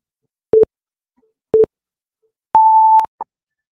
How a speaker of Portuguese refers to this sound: diminui o som desse reloginho, ele não precisa ser assim tão eloquente. Eu até me assustei. Você tá até tá constrangendo as vítimas. Até meus cachorros se assustaram.